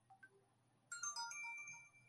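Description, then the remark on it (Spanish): The speaker's cell phone ringtone starts suddenly and plays a bright, multi-note electronic melody for about a second, fairly loud, after a short quiet stretch with a couple of faint blips. “Ay, ese era mi celular.”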